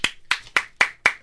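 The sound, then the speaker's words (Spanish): Five sharp hand claps in a steady, even rhythm, fairly loud, from what sounds like a single person clapping alone with no talking. “Sí, porque el artista vivimos del aplauso, señores.”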